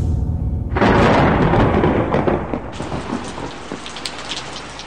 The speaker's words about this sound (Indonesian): Malam itu hujan deras, dan saat itu kita mau berkunjung ke adik ayah di luar kota.